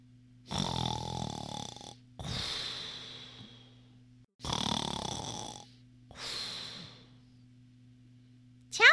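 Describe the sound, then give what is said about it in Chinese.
A sleeping hippo lying on a bridge snores in four long, loud, rasping breaths, each inhale harsh and drawn out with pauses between, followed by a brief high squeak at the end. Steady low hum underneath. “可是河马只管睡他的觉，照旧打他的呼噜。”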